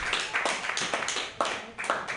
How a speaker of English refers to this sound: Please give her a huge round of applause for running the show tonight.